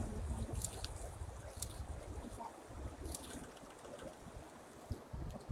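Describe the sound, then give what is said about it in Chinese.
River water flows in a steady, continuous rush, a dense hiss over a rumbling low end with faint brief splashes, and no one speaking. “对呀、位置很好，对，有河水”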